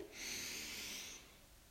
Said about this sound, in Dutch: doe nog één keertje als allerlaatste een extra keer. Adem heel diep in.